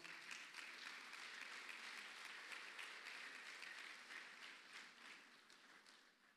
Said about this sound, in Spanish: Y amén. La iglesia le da palmas fuerte al Señor.